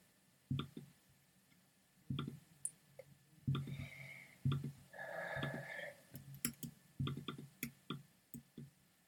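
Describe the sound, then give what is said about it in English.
Keyboard keys click irregularly, fairly loud, some in quick bursts and others spaced apart, with a faint hum and brief tonal sounds in the background. No one speaks. “I'm really bad at clicking keys.”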